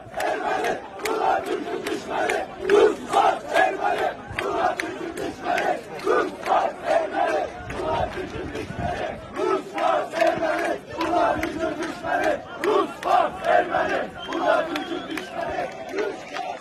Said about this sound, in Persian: بذارید براتون شعاری که امروز جوانان آذری باکو در تجمع اعتراضی سر میدن رو پخش کنم.